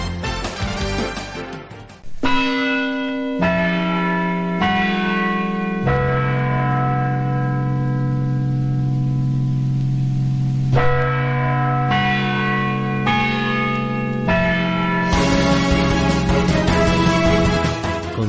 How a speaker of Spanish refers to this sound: Las campanas de las principales iglesias del casco céntrico de la ciudad de Loja anunciaban el inicio de la fiesta en honor al patrono jurado de Loja, San Sebastián.